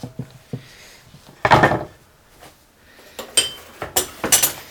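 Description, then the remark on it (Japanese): Clatter of cut pieces of pan-fried tortilla being set onto a plate, a longer scraping knock early on and then a quick run of light taps and clinks, with no talking. “はい2等分に切りましたそしましたらえっ、ー、とお皿の上に並べておきます、はい、”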